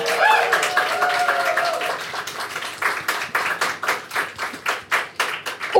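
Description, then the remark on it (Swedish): A crowd applauds, starting as dense overlapping clapping with some cheering, then thinning into a steady rhythmic clap-along of loud, evenly spaced claps toward the end. “vi kan ge dem en applåd för de är super, super härliga människor!”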